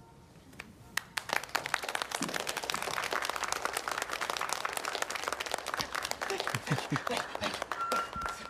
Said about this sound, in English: The cla- clapping's a little loud.